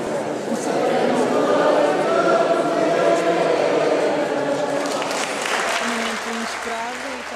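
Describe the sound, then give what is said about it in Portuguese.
An audience at the 25 de Abril ceremony claps steadily and loudly throughout, a dense, continuous patter of many hands, with voices mingling underneath before the applause thins slightly toward the end. “Todos os que ouviram bateram palmas.”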